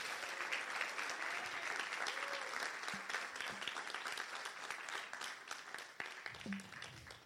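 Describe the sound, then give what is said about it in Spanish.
An audience bursts into sustained applause, a dense wash of many hands clapping at steady loudness for several seconds, with a few faint voices calling out underneath. “Dale un aplauso si tú lo crees, vamos.”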